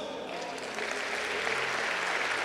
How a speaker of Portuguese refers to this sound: Você pode louvar esse Deus bem forte com as palmas.